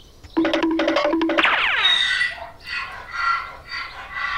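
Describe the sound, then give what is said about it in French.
A donkey brays loudly: a burst of rapid, harsh honking pulses slides into a long descending wheeze, then rasping hee-haw cycles continue, with no voices present. “Et l'âne se mettait à brère de plus belle.”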